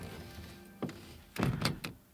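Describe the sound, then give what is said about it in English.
A man settles back onto a massage table after rolling onto his back: a soft thunk, then a cluster of creaks and rustling bumps as he shifts into place. “Sounds like he's lying down again, I turned back around to face him”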